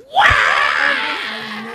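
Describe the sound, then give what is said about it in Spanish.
A voice mimics a baby's cry, a loud, piercing wail that rises sharply and holds for under two seconds, shrill and strained, slowly fading toward the end. “No, yo creo que el, la, kicks in el sistema de emergencia del ser humano, porque esos carajitos que lloran a veces de noche,”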